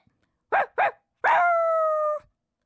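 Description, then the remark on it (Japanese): A voice-acting student imitates a dog: two quick, sharp barks, then a long drawn-out whine that holds steady before cutting off, with silence around it. “特技犬の鳴き真似”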